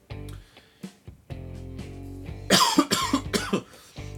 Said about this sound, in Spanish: Ah, pero no sé por qué tengo tos.